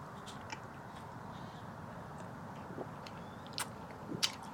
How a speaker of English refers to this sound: Now, to engage with the ASMR community's latest hot trend, chewing bubblegum while drinking orange juice.